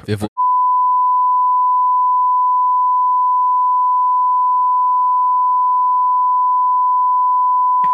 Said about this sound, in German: so, okay, wir sind wieder zurück vom Piepsen.